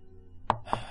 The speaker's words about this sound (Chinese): 躺在床上，就忽然又听到门外有人敲门了。